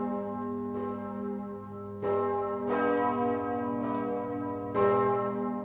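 Church bells ring out in a steady peal, overlapping strikes landing every second or so with long, humming resonance sustaining between them. Full, with no voices.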